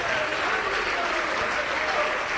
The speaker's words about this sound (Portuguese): Vem correndo, vamos aplaudindo o Senhor Jesus.